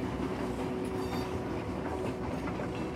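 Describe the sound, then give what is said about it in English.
A train rolls steadily along the rails through the wilderness, a continuous rumble with faint rhythmic clacking and a low steady hum, with no voices. “So enjoy this time and allow my voice to completely fade away just as the sleepy train rolls along through the wilderness.”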